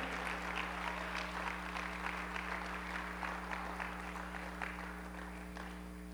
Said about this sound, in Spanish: ¿Alguien puede aplaudir al Señor esta noche? Aleluya.